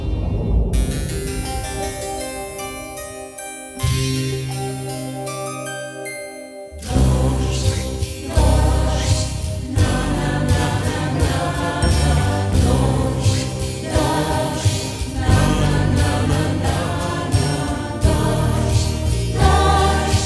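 A pop song begins with a soft, shimmering intro of sustained bright tones, then a full band with a steady beat and rich bass enters and plays on loudly and evenly.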